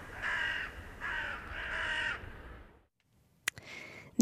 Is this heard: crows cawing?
yes